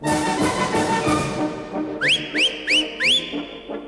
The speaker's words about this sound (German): Das hier sind die berühmtesten Pfiffe Berlins.